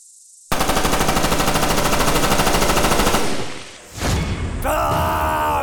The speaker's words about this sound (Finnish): Sitten, kun sitä kukaan vähiten odotti, kuuluu yön pikkutunneilla laukauksia.